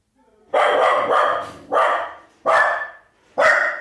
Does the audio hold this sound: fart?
no